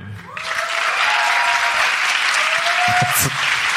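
An audience bursts into sustained clapping that swells quickly and holds steady and loud, a dense wash of many hands with a few faint cheers or whistles rising above it.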